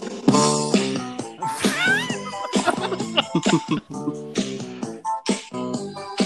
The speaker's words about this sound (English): All right. Hold on. Let me put on the intro for my segment.